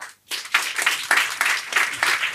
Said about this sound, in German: Okay. Ungefähr die Hälfte, würde ich sagen, oder? Ungefähr die Hälfte hat geklatscht.